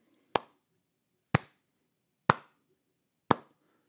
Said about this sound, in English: Slow clap for you, Bill.